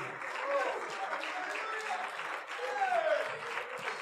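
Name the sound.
audience clapping hands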